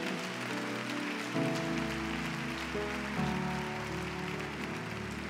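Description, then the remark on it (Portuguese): A crowd applauds steadily with a dense, rain-like clatter of clapping, while sustained keyboard chords play underneath and change a couple of times. No one speaks. “Se vai aplaudir, aplaude de verdade, que é para ele.”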